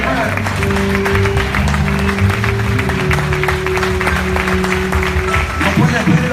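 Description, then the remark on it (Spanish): An audience applauds steadily in answer to a call for louder applause, dense overlapping claps filling the whole stretch at a loud level, while sustained low musical tones hum underneath. “Alguien que le dé un aplauso más fuerte,”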